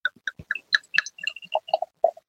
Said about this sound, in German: Und zwar, ich, ich schenke es nochmal ein, dann könnt ihr auch nochmal das einschenken mit euch mit anhören.